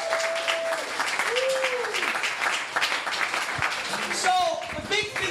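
A crowd claps and applauds steadily for several seconds, a dense wash of hand claps mixed with whoops, cheers and a few whistles rising above the noise.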